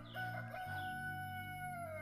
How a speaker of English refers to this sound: as the rooster had crowed, waking Johnny up